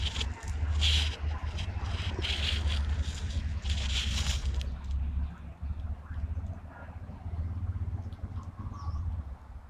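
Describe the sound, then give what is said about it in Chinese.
Two plain laughingthrushes scratching the ground for food: irregular bursts of dry rustling and scraping through the first half, over a steady low rumble, then quieter with a few faint chirps. “山噪鹛在地上刨食”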